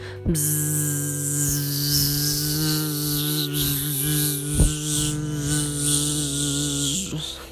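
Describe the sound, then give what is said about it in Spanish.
A sustained, steady buzzing hum made by a human voice imitating a bee, demonstrating the bee breathing exercise for children, done with index fingers plugging the ears; it drones continuously for several seconds with slight wavering and a brief catch partway through, fairly loud. “Le vamos a pedir que tapen con sus dedos índices sus oídos y empezar a hacer el sonido que hace la abeja, como...”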